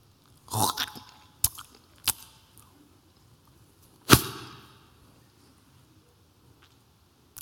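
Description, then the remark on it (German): Someone imitates spitting with their mouth, making a cluster of wet, sputtering bursts, two sharp short spits, then one loud, forceful spit, with silence between. “Vertrau mir, ich spuck dir nicht ins Gesicht.”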